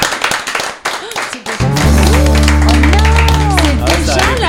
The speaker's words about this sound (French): Je pense qu'on peut applaudir notre invité.